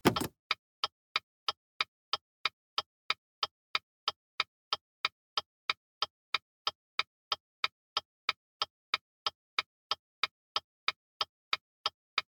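A car's turn signal ticks steadily, a crisp, evenly spaced click repeating about two or three times per second throughout, clear with no voices.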